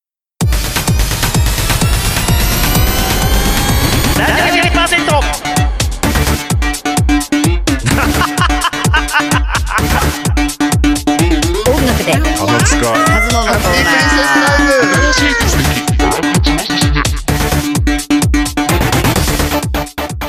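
A loud, dense rock song plays on a radio programme without a break for about twenty seconds, with pounding drums driving a fast, steady beat beneath a thick wall of distorted guitar.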